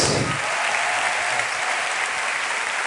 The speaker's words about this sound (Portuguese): Can we give Jesus a hand of praise? Nós podemos aplaudir ao Senhor Jesus.